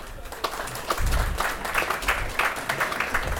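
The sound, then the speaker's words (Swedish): An audience applauds professional football player Adam Bergmark Wiberg steadily for a few seconds, a dense crackle of many hands clapping at once, fairly loud and continuous without a clear rhythm. “En applåd för Adam!”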